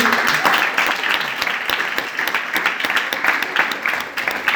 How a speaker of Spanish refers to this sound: Pásenle, muy bien, un aplauso,